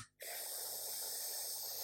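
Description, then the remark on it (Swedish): A brief hiss starts things off, then a long, steady, breathy rush of air follows, like a deep inhale drawn into the microphone after an asthma inhaler puff. “har du extra astma? För det ja. låter när du andas in.”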